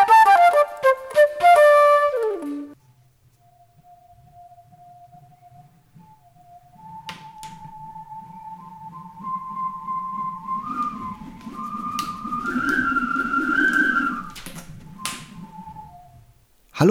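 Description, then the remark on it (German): The connecting hose between a foot pump and an air mattress is blown like a horn, opening with a burst of buzzy harmonic tones, then holding thin, steady whistling pitches that rise in steps over a low breathy rumble. “Was ihr eben gehört habt, war nichts weiter als ein Verbindungsschlauch von der Tretpumpe zur Luftmatratze.”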